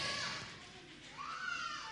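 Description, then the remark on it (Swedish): Faint sounds of young children at play during a church service, with soft chatter, a rising childlike vocal note and occasional light bumps. “Jag har bara suttit och njutit av hur barnen leker här.”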